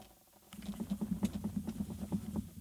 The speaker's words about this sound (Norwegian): Du er, veldig, du er veldig aktiv når du kaster terning.